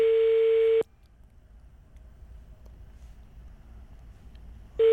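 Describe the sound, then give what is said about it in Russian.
Telephone ringback tones while calling a car service centre: a steady, loud electronic beep lasts under a second, then a roughly four-second silence before the next beep starts. No one speaks. “Гудки хорошие. Хорошие, каче- качественные.”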